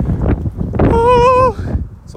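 wind blowing into microphone

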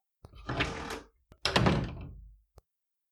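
door being shut quickly

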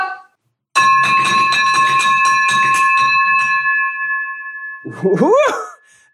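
victory bell ringing

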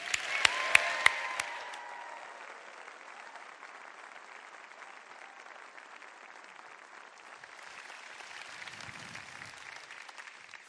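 audience applause and cheering

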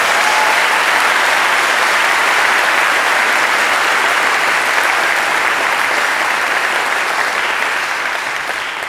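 audience clapping

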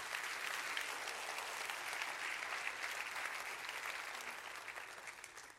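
audience clapping hands

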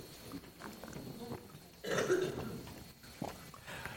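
coughing

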